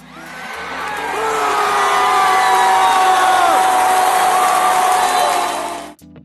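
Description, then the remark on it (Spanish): A huge stadium crowd celebrating a goal erupts in a sustained roar of cheering and shouting, swelling over a few seconds and staying loud before cutting off abruptly near the end. “Este fue el grito que les faltó a los siguientes equipos hacer en sus partidos pasados.”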